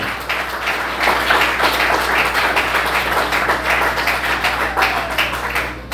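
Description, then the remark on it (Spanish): An audience breaks into sustained applause for the Lord, a dense crackle of many hands clapping steadily at an even, fairly loud level for several seconds, with no clear voices above it. “Dele un aplauso al Señor, Él es bueno.”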